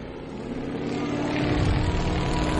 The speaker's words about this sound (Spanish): Se trata de un avión trimotor de la marca Ford, del que se fabricaron 200 unidades.